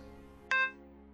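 A telephone hang-up tone: one short, bright electronic beep, ringing briefly before fading, heard alone over a faint low background hum.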